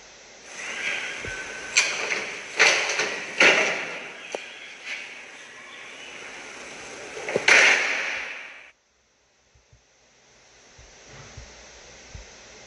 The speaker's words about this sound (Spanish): El viento gélido que azotaba los cuerpos desvestidos de aquellos hombres cierra la puerta de la habitación de un golpazo.